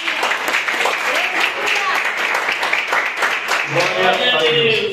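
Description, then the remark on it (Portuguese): A church audience applauds the Lord steadily during a service, dense clapping throughout, with a voice rising over it near the end. “Eu agradeço a oportunidade, palmas que Senhor.”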